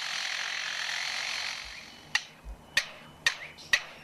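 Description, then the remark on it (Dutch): A lyrebird living next to a construction site mimics its hammering, sawing and machines: about two seconds of steady, rasping saw-like hiss, then four sharp, evenly spaced hammer-like knocks, fairly quiet, with no talking. “En dus wat je nu gaat horen is enkel en alleen de vogel die het hameren, het zagen, de machines en zo imiteert.”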